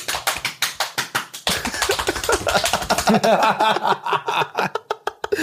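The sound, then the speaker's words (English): Rapid, rhythmic slapping taps, made by a person imitating the sound of someone masturbating loudly in a shower, repeat quickly and loudly, then give way to a burst of loud, overlapping laughter with a few more slaps. “his dad was like, stop jacking off because this fool was so loud with it inside the shower.”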